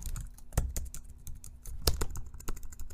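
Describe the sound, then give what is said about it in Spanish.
Fingers tap steadily on a computer keyboard, a quick irregular patter of clicks with a few sharper, heavier keystrokes standing out, and no voices. “con el repiqueteo de sus dedos sobre el teclado, con las montañas de papeles chamuscados.”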